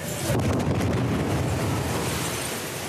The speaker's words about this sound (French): Deuxième explosion à l'extérieur.